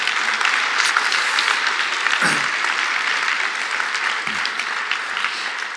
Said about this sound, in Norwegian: Vi har klappa mange ganger for dere, men jeg tror vi skal klappe én gang til bare for å understreke det.